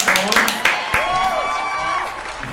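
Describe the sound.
Scattered applause from a small group welcoming a guest, with a few sharp claps standing out, mixed with cheering voices and talk throughout the short burst.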